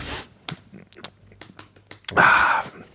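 Irregular, crisp clicks of someone typing on a computer keyboard to log in, with a short louder rustling burst near the end before the keystrokes fade.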